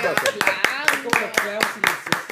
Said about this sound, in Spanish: Otro, aplauso